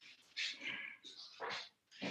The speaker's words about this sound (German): das ist mein Hund